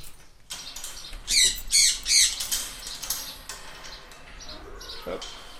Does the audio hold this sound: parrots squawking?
yes